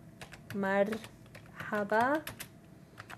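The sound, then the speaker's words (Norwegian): Quick, irregular clicks of fingers typing on a computer keyboard, steady throughout, while a voice briefly speaks or hums twice over the tapping. Someone is typing a greeting and their name in Arabic, using numbers and Latin letters on a PC. “bruker tall og latinske bokstaver til å skrive navnet sitt på PC-en.”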